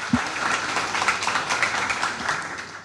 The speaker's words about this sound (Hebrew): תנו להם כפיים, אתם מוזמנים להתחיל.